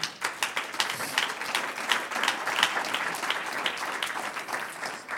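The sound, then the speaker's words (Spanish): A crowd bursts into applause in praise of the One who lives, many hands clapping in a dense, steady wash that holds at a fairly even level for several seconds without anyone speaking. “Un aplauso al que vive.”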